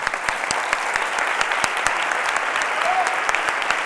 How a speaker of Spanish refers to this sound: Y ahora ya sí, ahora ya sí, Dejadme que de último detalle sea yo quien os aplauda a vosotros por haber asistido, por haber estado y por toda vuestra atención y vuestro cariño.